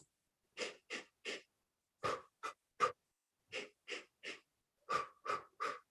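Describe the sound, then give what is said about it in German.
Quick, sharp nasal inhales come in tight sets of three, repeated four times with short pauses between sets, each followed by an exhale through the mouth, in a breathing exercise that tenses the pelvic floor three times with the inhales and relaxes it on the exhale. The breathing is distinct, with no talking. “wir werden jetzt dreimal relativ schnell einatmen durch die Nase und dabei den Beckenboden dreimal mit anspannen”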